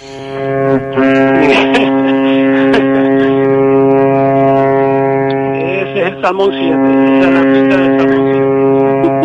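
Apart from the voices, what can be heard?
ship horn blast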